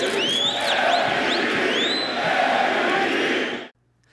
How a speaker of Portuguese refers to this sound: Antes do jogo, as luzes se apagaram e a torcida gritou MVP, as iniciais do jogador mais valioso em inglês.